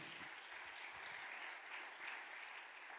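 An audience claps steadily, a dense, even wash of many hands that holds at a constant moderate loudness throughout, with no voices standing out.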